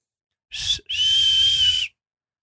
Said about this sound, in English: I, I can't do that that tooth whistle on on command